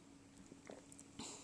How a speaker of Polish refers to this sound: E, łyk kawy. Mm.